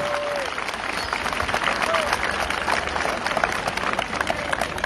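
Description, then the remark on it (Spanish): Steady applause from students at the Luis Donaldo Colosio general secondary school during a civic ceremony, many hands clapping in a dense, continuous crackle that holds at an even level throughout, with a few faint whistle-like tones briefly rising above it. “Muchas gracias y un aplauso para todos ustedes.”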